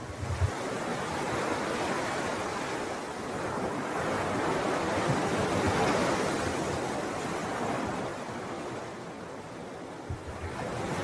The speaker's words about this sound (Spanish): escuchas el oleaje.